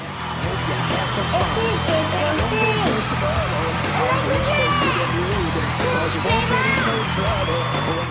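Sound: applause and cheering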